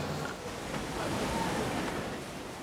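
waves

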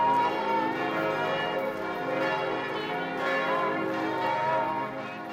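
church bells ringing

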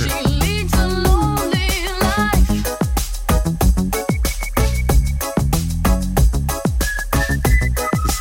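whistled melody

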